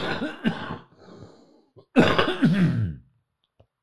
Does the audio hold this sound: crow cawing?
no